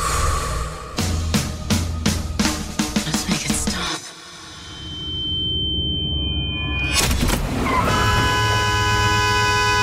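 A car horn honks in a rapid series of short, loud blasts, falls quiet briefly, then blares again in a long, sustained honk, in a Netflix series scene where businesswoman Amy Lau honks at handyman Danny Cho in a parking lot in LA. No one speaks.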